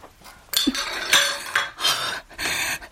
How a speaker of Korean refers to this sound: 부엌에서 달그락거리는 소리가 들려온다. 남자가 방문을 열고 슬그머니 나왔을 때 머리가 헝클어진 아내가 싱크대 앞에 서 있었다.